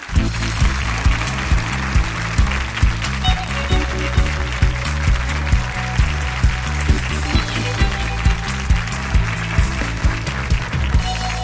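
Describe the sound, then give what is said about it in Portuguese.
A studio audience applauds steadily for a guest, a former soldier who is president of the Association of Ex-Combatants of the Araguaia Guerrilla. The clapping is a dense wash that carries on under rhythmic music with a pulsing bass beat throughout. “Aplaudam o soldado”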